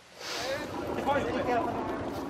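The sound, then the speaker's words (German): A motorboat runs steadily out into the Atlantic waters off Noronha, its engine drone mixed with the constant rush of spray and wind. “Mit Leos Boot fahren wir raus, in die Atlantikgewässer vor Noronha.”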